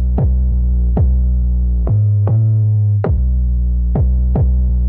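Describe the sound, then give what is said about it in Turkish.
A loud, deep roar from a burning gas crater in Turkmenistan that never goes out drones steadily throughout, with a rhythmic throbbing pulse about once a second and no voices. “Şimdi bu gaz kraterini burada dinlemek falan iyi de biz de bunu bir görelim”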